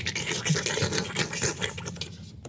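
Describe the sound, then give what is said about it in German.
Rough, raspy scratching rubs on in quick irregular strokes, dense and gritty with a hissy edge, steady in loudness before thinning out at the very end. No voices. “Plötzlich ist das Kratzen deutlich lauter.”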